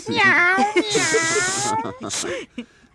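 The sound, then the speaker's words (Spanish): A person imitates a cat with a long, drawn-out vocal meow that bends in pitch, followed by a few shorter mewing sounds, fairly loud with no other sounds around it. “Me dieron ganas de aplaudir, eh, cantar, reír, maullar.”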